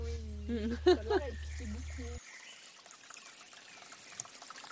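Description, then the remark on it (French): Splashing river water runs steadily through the second half at moderate volume, with small irregular bursts, as someone plays and bathes in the river. The first half carries a voice-like sound over a low, constant hum before the water takes over. “Professeur, qu'est-ce que vous faites dans la rivière je m'amuse, ma grande.”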